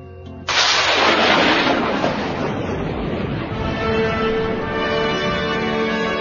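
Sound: thunder rumbling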